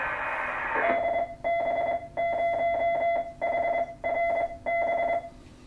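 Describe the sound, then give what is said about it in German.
An amateur radio repeater signal from repeater DB0HRB on the Sackpfeife, tuned in on a radio's channel switch: a short hiss of static gives way to a string of steady, mid-pitched electronic beeps in an uneven on-off rhythm, like a Morse identifier, with no voices. “So, jetzt bin ich genau auf meiner Frequenz und man kann dann hören.”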